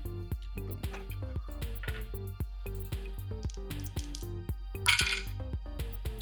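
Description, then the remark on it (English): Dice rolled for damage in a tabletop role-playing game clatter across a hard tabletop in a quick run of sharp, rattling clicks, ending in a brighter, louder tumble near the close, over a steady low background hum. “I got mm-hmm. five on the dice total, but I also see there's a plus four and a plus six.”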